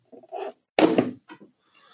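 A large cardboard advent calendar door, the sixth, is pried open: soft rustling and creaks, then one loud ripping tear of card, followed by a few quieter scrapes and crinkles.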